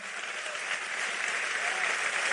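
Steady, dense applause from an audience, a broad hissing wash of many hands clapping at once that holds level and swells slightly toward the end.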